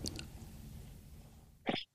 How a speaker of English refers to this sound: Bless you.